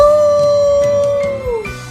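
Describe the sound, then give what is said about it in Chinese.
A single long fire wolf howl holds a steady, fairly high pitch for over a second, then slides downward and fades, with a rough low rumble underneath. “吼声越来越响，震得整个宫殿都跟着晃动起来。”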